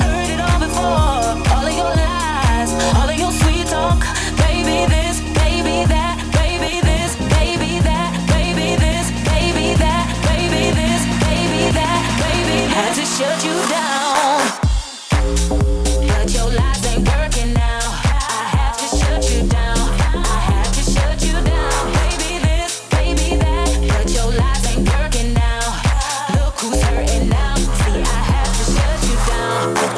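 A loud electronic dance remix opens with sustained, bass-heavy synth chords, cuts out briefly around the midpoint, then drops into a punchy, driving beat with deep bass and crisp percussion. No voices.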